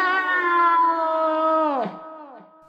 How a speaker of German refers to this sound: So, denn das ist wir begleitet von genervten Katzen, die denken, sie kriegen gar nichts mehr zu essen, ist das unser Jingle